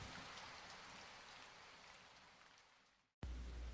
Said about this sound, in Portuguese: Parara de trovejar, mas a chuva estava pesada, pinicando incessantemente o telhado.